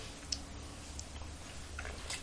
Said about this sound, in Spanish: Estoy aquí con mi primer cafecito del día, sí, y de la semana también, un buchito amargo que me voy a dar ahora, pero siempre, siempre necesario para empezar esta, la semana informativa.